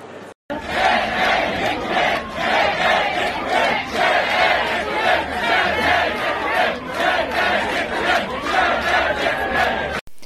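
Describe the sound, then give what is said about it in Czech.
A large crowd of supporters of elected president Petr Pavel chants thanks to Czech Television in unison with a steady rhythmic beat, loud, the massed voices filling the space continuously for about ten seconds with no single speaker standing out. “České televizi děkovali jak hosté volebního studia, například Daniel Kroupa, tak i samotní příznivci zvoleného prezidenta Petra Pavla.”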